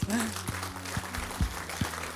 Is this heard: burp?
no